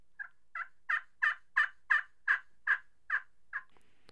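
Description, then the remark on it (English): A slate turkey call, with the opening of its box sound chamber left completely open, is run in a series of about ten evenly spaced, raspy yelps, rising then fading slightly in loudness, clear, with no talking. “leave that opening completely open and run it, and it sounds like this.”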